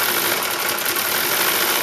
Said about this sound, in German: Im Gegenzug dazu ähm, ein Crossplane-Motor. Klingt auch wie ein Trecker, wie ein anderer Trecker.